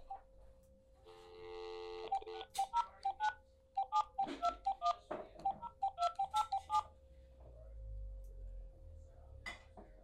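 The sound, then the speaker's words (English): A long run of quick touch-tone phone-call dialing beeps follows a short electronic tone, crisp, with a faint steady hum underneath; afterward the line stays quiet with no ringing. “I've never heard a phone that doesn't ring before.”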